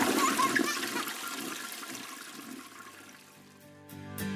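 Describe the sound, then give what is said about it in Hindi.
A toilet is flushed with its flush button, a loud rushing gush of water that gradually tapers off into a quieter trickle and gurgle, with no talking. “चलो ये फ्लश का बटन कहाँ गया”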